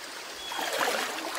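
small river stream flowing

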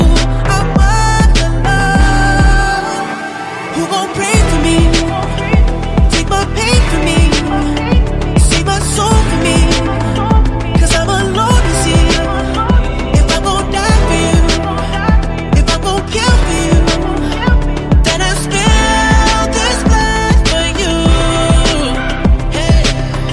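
song

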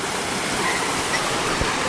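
waterfall rushing

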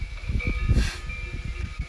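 wind

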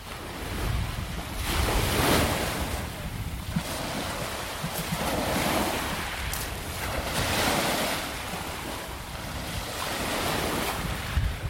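sea waves

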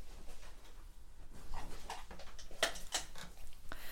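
dog whimpering

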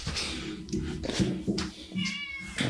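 cat meowing

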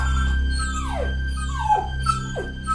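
dog whimpering

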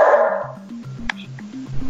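dog barking

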